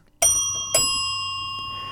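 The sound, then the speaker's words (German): A doorbell at the door of an elderly couple rings twice in quick succession, two bright metallic strikes whose clear tones hang and slowly fade afterward, fairly loud, with no voices. “Als die beiden fertig angezogen sind, stellen sie sich vor die Tür des älteren Ehepaars und klingeln.”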